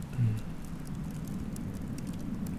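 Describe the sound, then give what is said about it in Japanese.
An open campfire crackles, with scattered sharp pops and snaps, including occasional dry snaps from deep in the fire, over a steady low rumble and soft hiss; no one speaks. “うん、このパチパチいう音野中さん音の人としてですね、はいはい、いろんなパチパチの音があるじゃないですか、はい、この表面的なパチパチパチじゃなくて、うん、奥の方から聞こえるパチっていう、はい、ちょっと乾いた音がたまに聞こえるんですけど、はい、その音がね”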